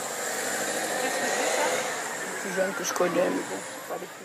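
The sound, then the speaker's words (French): A car pulls up and stops during an interview in a suburb of Lyon, France, its engine settling into a steady, low idling rumble with a broad hiss, while muffled voices briefly break in near the end. “pendant l'interview, une voiture s'arrête.”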